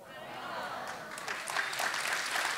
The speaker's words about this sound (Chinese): 要鼓掌，热情的鼓掌。